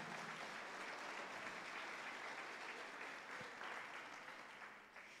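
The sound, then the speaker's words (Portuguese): A crowd applauds the Lord steadily, a dense wash of many hands clapping at once, sustained and fairly loud before tapering slightly toward the end. “Aleluia, aplauda o Senhor.”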